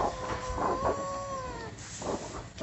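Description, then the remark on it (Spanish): A wolf in a forest lets out one long, drawn-out howl that holds steady and then slowly falls away, set against a constant rushing background of strong wind. No one speaks. “salió corriendo hacia el bosque donde el aullido de un lobo y un fuerte viento le hicieron su compañía.”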